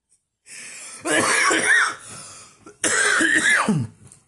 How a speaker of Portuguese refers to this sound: Ah, eu odeio rir e tossir, sabe? Quando a gente fica velho é foda.